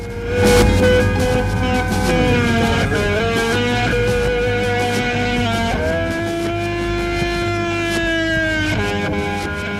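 A rock recording played on a radio program about guitarists: loud, sustained electric guitar tones with a heavily distorted, wailing quality, bending and shifting in pitch over a dense rock backing, played steadily throughout with no talking.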